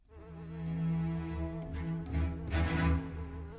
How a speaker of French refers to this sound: Une mouche se pose sur le nez de Kota.